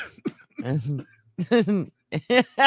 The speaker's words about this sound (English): you're laughing so hard, you're coughing.